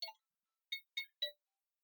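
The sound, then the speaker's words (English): A phone alert tone plays a short jazzy tune: one bright electronic note, a brief pause, then three quick notes in a rising-and-falling pattern. It is clear, with no voices. “Probably my getting a uh, phone call. No, it was it was something else.”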